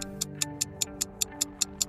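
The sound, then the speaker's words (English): A clock ticks steadily and quickly, about ten crisp, evenly spaced ticks in two seconds, sitting over a low, sustained humming tone. No one speaks. “Let's turn back the clock.”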